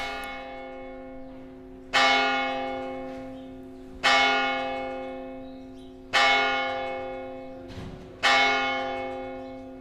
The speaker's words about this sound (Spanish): Su casa, un viejo caserío con siglos de historia, engalanado en su fachada con una gran bugambilla, está junto a la parroquia de Andramari, cuyas campanadas hacen que encamine mis pasos hacia la puerta.